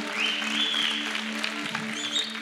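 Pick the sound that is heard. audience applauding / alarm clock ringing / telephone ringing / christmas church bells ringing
audience applauding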